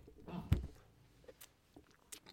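Close, wet chewing and biting sounds, with a sharper crunchy bite near the start followed by softer intermittent mouth noises; no talking.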